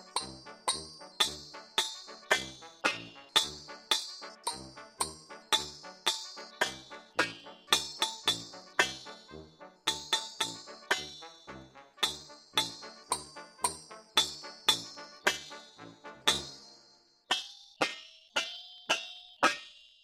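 A melody tapped out on cooking pots: a long run of ringing metallic strikes in a steady, tune-like rhythm, close and clear, with no voices.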